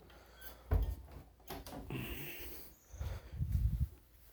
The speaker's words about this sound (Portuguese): Caraca, o Totti abriu a porta, tava fechada, cara. Enfim, vou encostar a porta de novo.